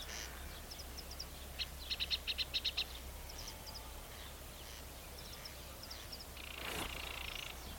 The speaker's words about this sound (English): Another corncrake. Is that over there? Or yeah, that's over in that bit.